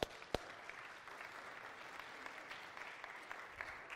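A crowd at a sermon applauds a man, clapping steadily in a dense, sustained wash of applause, with a couple of sharper loud claps near the start, continuing evenly throughout without any voices.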